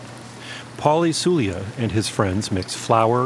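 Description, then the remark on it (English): A steady, hissing crackle of fry bread frying in hot oil in a cast iron pot. The fry bread is small pancakes of yeast dough. The crackle runs beneath a man speaking, a constant low sizzle that stays even throughout the talk. “this is the sound of fry bread cooking in hot oil.”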